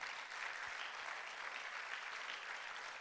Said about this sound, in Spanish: Denle un aplauso al Señor.